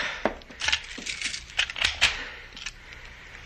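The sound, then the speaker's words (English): A key rattles and scrapes in a door lock amid jingling metal, with a few sharp clicks as the bolt turns and the door is locked from inside, fairly quiet, with no one speaking. “I will lock it.”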